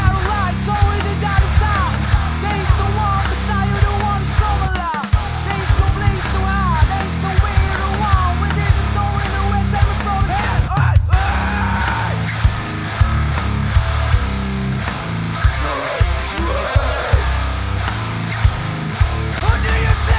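A loud, dense hard rock song plays continuously, with thick distorted guitars and pounding drums filling the whole stretch, full, with no talking over it.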